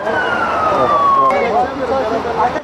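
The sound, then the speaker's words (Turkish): An ambulance siren wails with a steady falling pitch for over a second, then cuts off, leaving busy street noise and indistinct voices; ambulances are moving patients from a flooded private hospital in Kepez district to other hospitals after heavy rain. “Hastalar ambulanslarla diğer hastanelere taşındı.”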